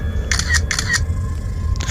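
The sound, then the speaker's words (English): Two crisp camera shutter clicks as a photo is taken through the open driver's door of a Jeep, each a quick double snap, spaced about half a second apart, then a fainter partial click near the end, all over a low steady rumble. “I'll just come around the other side and take the picture through the open driver's door.”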